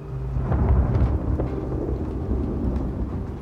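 A heavy storm raging outside the windows on the evening of 3 December 1999, roaring steadily, with deep rumbling thunder and dense rain beating down throughout, loud, with no voices.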